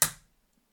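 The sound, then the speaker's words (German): A camera's viewfinder magnifier (loupe) flips up with one crisp mechanical snap, ringing briefly before fading into near silence. No voices are heard. “Die kann dann noch die Lupe hochklappen.”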